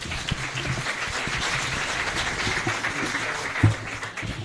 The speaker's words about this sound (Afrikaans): Vriende, medesoekers, ons bied julle die redakteur van die kerkbode. Kom ons gee vir my lekker hande klap.